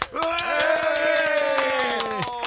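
An audience applauds a visiting band member with brisk, steady clapping for a couple of seconds while a long, sustained whooping cheer rings out over the claps and fades at the end.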